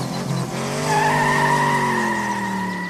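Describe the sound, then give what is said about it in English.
A car's tires screech loudly in a sustained, high-pitched squeal, its tone sliding slowly downward as the vehicle skids to a halt, with a low engine rumble underneath and no one talking. “That's my dream car.”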